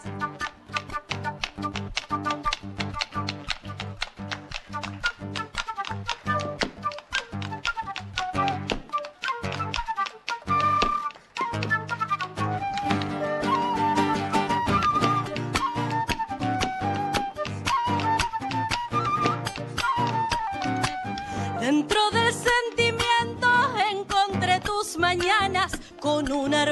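A lively chacarera played live, with briskly strummed strings and a steady driving percussive beat under a bright melody, loud throughout with a brief dip partway through and no talking.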